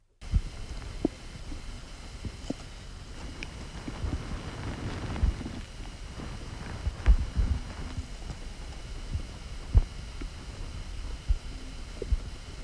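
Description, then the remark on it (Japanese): Faint, muffled bowel gurgles and soft bubbling pops come through irregularly over a steady low hiss, a belly recording of the day's gut sounds made with a smartphone app, with occasional louder thumps and no talking. “あのアプリも出たんだけどあの今日の「蝶の音」えちょ聞いてみたみんなに聞いてほしい”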